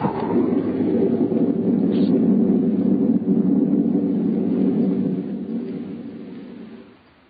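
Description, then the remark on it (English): A loud, deep crash of thunder with a lightning strike that rolls and rumbles steadily for several seconds before slowly fading away, with no voices present. “Through the thunder crash, I heard her. And then the lightning struck, and I was falling through the air.”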